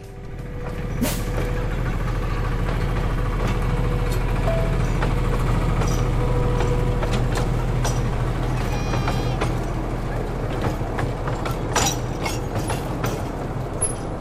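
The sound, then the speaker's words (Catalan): A miniature train in a park in Lyon rumbles steadily along with a low engine drone, scattered clicks and rattles from the cars, and occasional sharp squeaks over the top, with no one speaking. “El so d'un trenet d'un parc de Lyon.”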